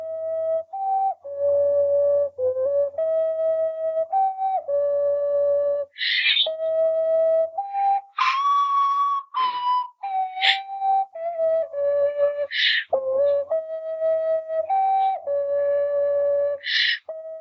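A melody played on a twelve-hole ocarina, with pure, sustained notes rising and falling in a slow tune and occasional breathy, airy bursts between phrases, played solo.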